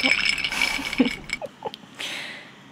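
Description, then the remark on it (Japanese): A cup of fizzy juice with ice, the ice starting to melt, shaken hard: a jumble of clattering, rattling knocks and sloshing with a bright hiss of fizz, ending in a softer fizzing wash. “氷の音となんか瓶の音が混ざってる感じですねこれあれですね炭酸に入れた氷が溶け始めて多状態で全力でコップを振っている音です”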